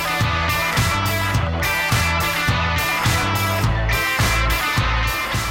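A driving rock riff, a theme from the second part of a rock song, on distorted electric guitar, steady drums and bass locked into a repeating pattern, loud and full throughout with no vocals.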